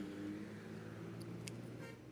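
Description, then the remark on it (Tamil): Steady low engine drone and road rumble from inside a moving college bus at 9:40 AM, with a couple of brief, faint higher-pitched bursts of traffic noise; no one speaks. “April nineteen ninety two college bus nine forty AM”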